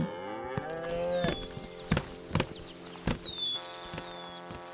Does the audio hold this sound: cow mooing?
yes